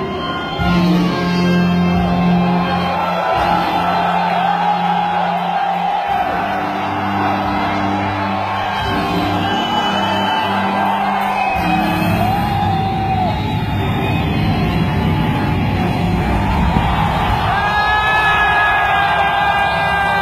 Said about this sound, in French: la personne qui crie aux deux tiers de la vidéo a pas marché sur un clou parce que ça ressemblait à ça.